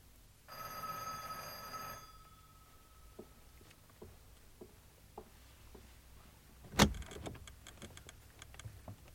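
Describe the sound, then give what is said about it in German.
A doorbell, rung by a police sergeant at Sir Henry's house, rings with one steady, bright bell tone lasting about a second and a half. Quiet taps follow, then a sharp, loud knock or thud, with no one speaking. “Klingeln Sie, Sergeant.”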